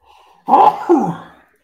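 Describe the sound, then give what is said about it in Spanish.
A sneeze, beginning with a soft intake of breath and then bursting out loud in two quick explosive parts that trail off, with no talking around it. “Jesús.”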